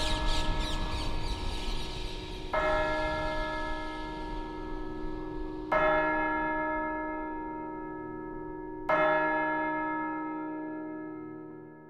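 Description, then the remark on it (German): A large church bell strikes midnight, tolling slowly, about four heavy strokes roughly three seconds apart, each resonant chime lingering and overlapping the next. No voices, just the deep, ringing peal. “Nun schlug es Mitternacht, und mit Schlag zwölf war es heute.”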